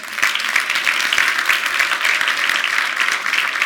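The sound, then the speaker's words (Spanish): An audience bursts into steady, sustained applause, many hands clapping densely and evenly for several seconds with no voices rising above it. “Un aplauso al Señor.”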